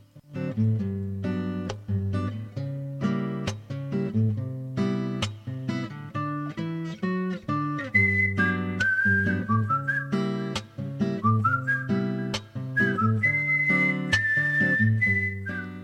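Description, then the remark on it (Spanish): A cheerful video game tune playing in a relaxed free mode where the player can go fishing, with bouncy, rhythmic instrumental backing, joined midway by a bright whistled melody that carries on steadily to the end, loud. “suena una cancioncita que de hecho el nombre de la canción es Life is Beautiful”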